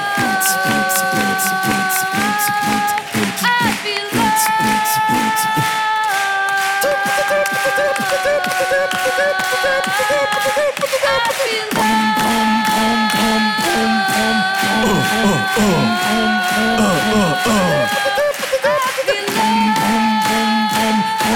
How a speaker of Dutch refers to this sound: One, two, three, four! Applaus voor jullie zelf!